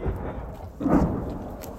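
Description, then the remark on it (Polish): A deep, rumbling boom from a Grad rocket launcher firing outgoing rockets in Bakhmut swells up partway through and rolls on in a low, thunder-like tail; no one speaks. “Podczas tej rozmowy nagle przerywa wam huk wyrzutni grad.”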